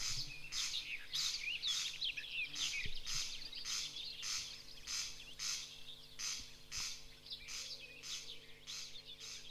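A corncrake's dry, rasping zipper-like call repeats in a steady rhythm, about a dozen harsh bursts, fairly loud, with no voices.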